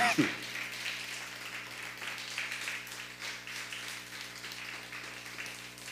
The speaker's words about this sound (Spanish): él nos ve desde Morelos, denle un fuerte aplauso a Morelos.